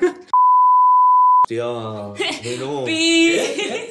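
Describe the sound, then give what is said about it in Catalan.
A single loud, steady censor beep lasting about a second cuts into a voice, then laughter and chuckling voices follow right after. “pip, el primer pip”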